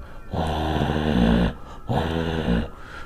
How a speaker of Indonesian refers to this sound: Nah, nggak lama jalan itu ada yang mendengar suara eraman. Jadi suara orang yang mengeram.